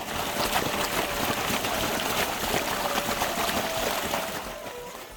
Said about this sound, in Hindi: अंदर पहुंच के देखता है पानी निकल रहा है शिवलिंग के पास और निकलता ही जा रहा है